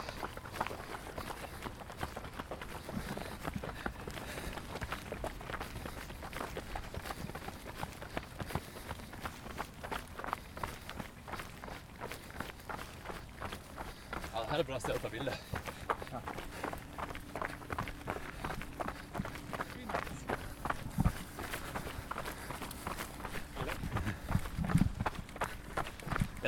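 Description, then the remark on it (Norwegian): Steady, rhythmic running footsteps thud for the whole stretch during a run, a quick even cadence of impacts over a constant rush of wind and movement noise. “ikke annet å ta opp lyd på en løpetur enn å filme.”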